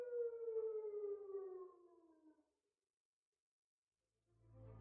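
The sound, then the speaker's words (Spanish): A siren wails from a distance, its steady tone slowly sliding downward and fading out over a couple of seconds, followed by a brief silence and then a low rumbling hum. “Solo deseaba que el golpe y el arrastre de su herramienta apagaran el ruido de las sirenas lejanas.”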